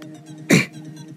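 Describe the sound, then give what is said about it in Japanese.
A single sharp cough bursts out mid-clip, loud and broad against a quiet hum, then fades quickly. “すいませんなんかすごい咳出るな今日。”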